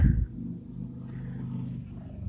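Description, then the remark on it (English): Quiet ambience inside a parked car: a steady, muffled low rumble fills the space, opening with a brief soft thump, with a faint airy hiss drifting in midway and no voices. “I have to actually get out of my car and uh, walk to the yard.”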